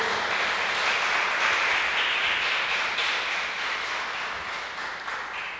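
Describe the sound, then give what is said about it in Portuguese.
An audience applauds the Lord together, a dense, steady wash of many hands clapping that stays loud throughout and eases off only slightly toward the end, with no voices heard. “Você que recebe, aplauda ao Senhor.”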